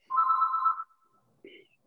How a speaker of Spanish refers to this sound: Perdón, pero está timbrando el teléfono, no lo voy a contestar.